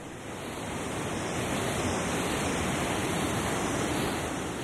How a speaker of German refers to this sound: Tosend schießt das wilde Bergwasser aus der Schlucht heraus zur historischen Schwangauer Gipsmühle.